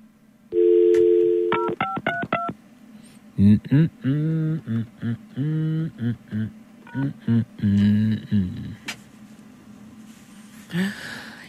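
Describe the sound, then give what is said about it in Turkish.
A steady tone gives way to a quick run of paired telephone keypad beeps as a number is dialed again to redo a call, followed by voices talking. “Bir daha arayalım.”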